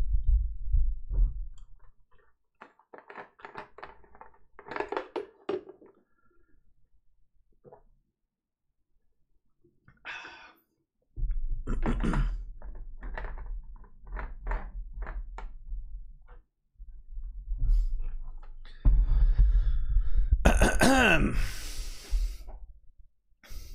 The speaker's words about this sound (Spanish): Botella. Voy a beber un traguito de agua y empezamos.